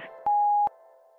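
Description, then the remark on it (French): A single steady electronic answering-machine beep, a mid-pitched pure tone lasting under half a second, loud and clean with faint clicks at its start and end, alone with no voices. “Parlez après le bip.”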